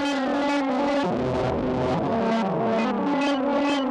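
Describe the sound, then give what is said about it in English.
A distorted instrument tone from a DPW four-band distortion module, all its parameters set to 12 o'clock, plays continuously at steady loudness with a thick, buzzy, harmonically rich sound, its notes gliding and bending over the four seconds. No one speaks. “Now let's check out the uh, the DPW four band distortion.”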